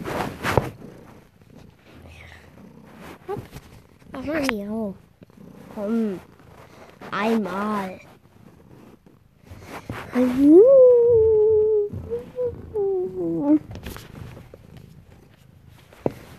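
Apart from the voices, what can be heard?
cat purring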